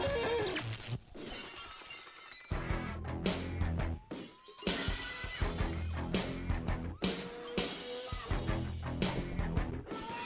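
Glass shatters loudly near the start of Stone Cold Steve Austin's professional wrestling entrance theme, followed by a string of sharp crashing impacts over a dense, roaring wall of noise that continues to the end, with no one talking.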